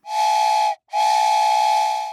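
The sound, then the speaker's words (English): A steam train whistle blows twice, two long, loud, steady blasts with a brief gap between them, rich in airy hiss and high overtones, with no voices. “Is it a steam engine train?”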